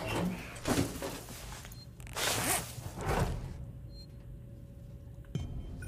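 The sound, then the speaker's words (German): A zipper being pulled several times in quick rasping strokes while someone puts on a suit, fairly loud, with soft rustling and a faint clink near the end. “Und dann sage ich, hurra, wir haben uns äh, angezogen.”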